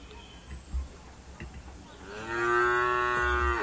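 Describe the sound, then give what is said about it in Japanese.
A single long cow moo rises in after a couple of seconds of quiet background noise, loud, with rich harmonic tones holding steady for over a second before fading. “デビュー牛の鳴き声で”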